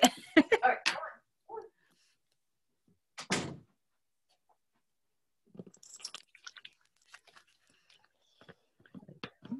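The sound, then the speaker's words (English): A door swings shut with one solid thud, after a few quick clattering knocks. Softer rustling and handling noises follow. “I'm going to shut the door since you walked.”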